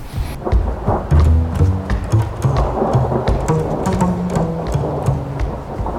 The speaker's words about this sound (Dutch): Eh, en, en, dat uiteindelijk diep ongelukkig is en door de Alpen zwerft... terwijl overal om hem heen steeds dat onweer inslaat.